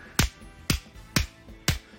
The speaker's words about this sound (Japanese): この0.1秒という時間は要するに拍手の時に両手の手のひらが当たっている一瞬と大体同じ長さになりますでこういうこういう音ですね